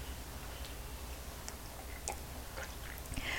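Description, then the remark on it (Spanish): Quiet mouth sounds of someone sipping freshly brewed hot coffee without sugar from a cup in the morning: a few soft lip clicks and small wet ticks, ending in a brief airy slurp, with no talking. “Voy con un sorbito mañanero.”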